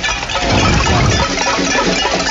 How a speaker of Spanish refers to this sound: El cacerolazo, el hoyetazo, el pailazo, aquí sacaron los cucharones, sacaron hasta el perro para protestar. Son más o menos 200 personas las que están aquí en el barrio La Esmeralda, muy cerca de la carrera 50 con calle 45.